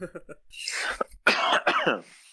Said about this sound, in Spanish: ¿Por qué estás tosiendo, güey?